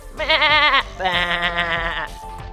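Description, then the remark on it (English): A sheep bleats twice in quick succession, loud, each wavering baa with a shaky, trembling tone and no other sounds around it. “said the sheep.”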